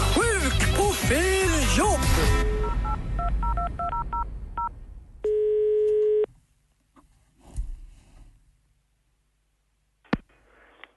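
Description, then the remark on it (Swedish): A quick run of DTMF keypad beeps as a number is dialed for a call to a Dressman workplace on Mix Megapol radio, followed by a steady tone and then quieter clicks and faint line noise, all clear with no talking. “ringer till någon arbetsplats där han överhuvudtaget inte har att göra”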